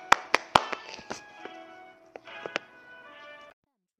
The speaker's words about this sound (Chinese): 下面有请故事大会导师王老师，我们讲着这段小故事，掌声有请。